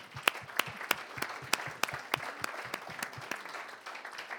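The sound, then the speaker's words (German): Audience applause given to God, with a steady, rhythmic clapping beat cutting through the dense patter of many hands, moderately loud and sustained throughout with no voices. “Gib Gott Applaus dafür.”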